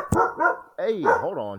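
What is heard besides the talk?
dog barking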